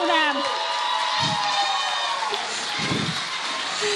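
audience applauding and cheering

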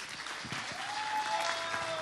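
audience applause

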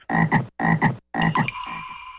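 frog croaking

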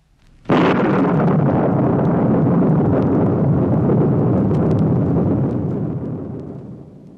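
thunder clap

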